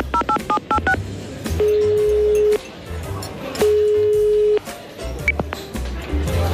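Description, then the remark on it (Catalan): A quick burst of phone keypad dialing beeps, then an outgoing call ringing: two steady, evenly spaced ringback tones with a pause between, heard clearly over faint background noise. “Trucarem un moment, que avui ha anat a Montilivi, a veure el partit.”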